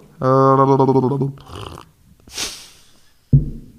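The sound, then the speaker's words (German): A voice imitates bubbling with a throaty, rapidly pulsing burble lasting about a second, followed by a few breathy puffs and a short snort-like burst, fairly loud. “Diese, ich könnte ja auch mal, ich könnte ja auch mal blubbern so.”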